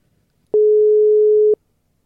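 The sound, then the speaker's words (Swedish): A single telephone ringback tone, a steady mid-pitched beep lasting about one second, sounds clearly and alone against near silence, as a call is placed to an interview guest. “så att eh, vi kör igång direkt. Vi ringer upp eh,”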